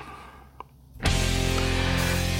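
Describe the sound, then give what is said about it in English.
About a second of near silence, then loud, full bumper music bursts in abruptly and carries on steadily to the end. “What you hear there is the bumper music song.”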